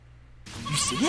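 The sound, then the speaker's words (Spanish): A single sheep bleats loudly and close by, a wavering nasal baa that starts abruptly after a brief quiet moment and rises in pitch toward the end. “Sí, es la oveja.”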